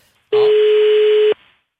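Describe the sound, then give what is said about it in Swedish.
A single steady ringback tone on a telephone line as Swedish television SVT's program Veckans brott places a call, one loud, clean beep lasting about a second before cutting off, with no one talking. “Så vi ringer här från SVT faktiskt och eh, Veckans brott.”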